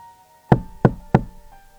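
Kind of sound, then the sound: impact, knocking on a door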